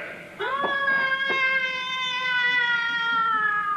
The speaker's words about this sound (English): Oh, my goodness. Great big black cat at the window, rolling its yellow eyes at me. Go away, kitty. Shoo! Scat, cat, Scoop.